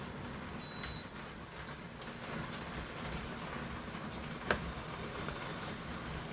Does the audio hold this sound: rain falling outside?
yes